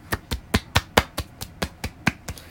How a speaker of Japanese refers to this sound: 今日は拍手バージョンでいきます。